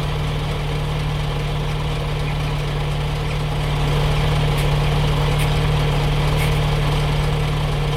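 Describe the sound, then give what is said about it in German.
A truck engine idles steadily while the truck stands at a traffic light beside the speaker, a constant low rumble and hum with slight vibration that holds for the whole stretch, no voices present. “So, das letzte Geräusch ist ein LKW, der neben mir an der Ampel steht.”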